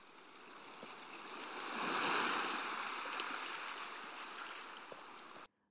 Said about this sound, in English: Where does water come from? A lake, the sea.